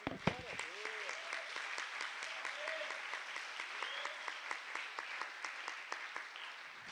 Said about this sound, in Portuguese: Gente, coisa linda. Nossa, vamos dar um aplauso para Jesus pelos aniversariantes.